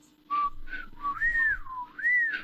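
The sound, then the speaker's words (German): A toy whistle lollipop gives a few short, breathy piping notes, then a loud tone that slides up and down twice, with no one talking. “Lutscher, Lutscher, mit so einem Pfeiflutscher.”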